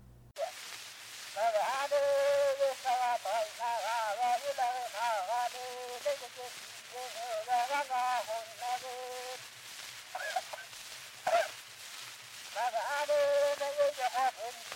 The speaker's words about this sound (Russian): Это был голос шамана, записанный в 1927 году. А в 2007 году специально для Красноярской музейной биеннале художница Лила Карбовская оцифровала его.